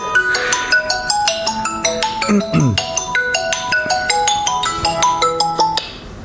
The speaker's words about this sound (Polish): Dzwoni mi telefon.